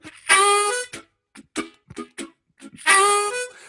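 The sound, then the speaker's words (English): A harmonica, played with a puckering embouchure and tongue slaps, plays a lightning-quick vamping pattern: a bright sustained chord, a run of short choppy chord stabs, then another held chord. It is fairly loud, with no voices. “that really lightning quick vamping sound from a puckering embouchure.”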